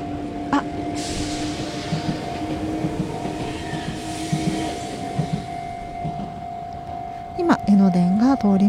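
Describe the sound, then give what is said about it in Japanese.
A railway crossing bell at the crossing in front of Kamakura-Kōkōmae Station, the crossing seen in the Slam Dunk opening, rings steadily and insistently while a train rumbles past, with a person briefly starting to speak near the end. “皆さん何の変哲もない踏切の音に聞こえるかもしれませんが、えー、こちらが、えー、鎌倉高校駅前の「えー、スラムダンクのオープニングでも出てきた、え踏切の音でございます ね言われないとわからないですよね”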